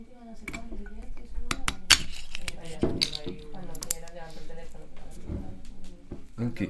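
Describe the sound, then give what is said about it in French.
Squeaks, clicks and ratcheting creaks as a corkscrew works an extremely hard technical cork out of a 2021 Syrah wine bottle from Domaine de l'Agneau at 13:30 for lunch, a series of sharp irregular snaps over several seconds while someone talks underneath. “Et là, on voit tout de suite que le bouchon est extrêmement dur.”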